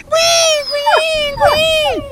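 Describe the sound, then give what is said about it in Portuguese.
A voice imitates a mongrel dog whining in the cold when it rains: a high, nasal whimper held steadily for about two seconds. It breaks briefly and dips in pitch a few times, with no words spoken. “Quando chove, ele recebe aquela frieza e começa a grinir.”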